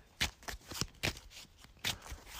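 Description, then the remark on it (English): A deck of cards being shuffled during a card game after a card is shuffled back into it, with a quick series of crisp riffling bursts and soft slaps in an irregular rhythm, no voices present. “All right, so that's shuffled nothing I could do about that.”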